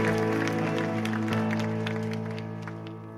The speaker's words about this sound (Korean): 다시 한번 큰 영광의 박수 올려드립시다.